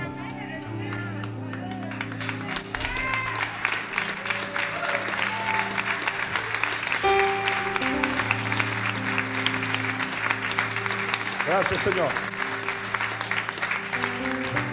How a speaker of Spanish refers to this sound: Dele gracias con ese aplauso. Dígale gracias. Aleluya.